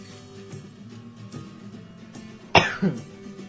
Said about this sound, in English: There it was. I had a cough coming. I couldn't quite talk. Could not.